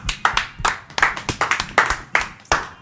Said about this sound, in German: Merci, das ist ein Applaus wert.